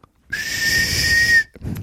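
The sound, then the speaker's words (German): A man whistles a single thin, breathy note held for just over a second, airy and weak with lots of hiss, followed by a brief rustle. “und der pfeift offenbar aus dem letzten Loch.”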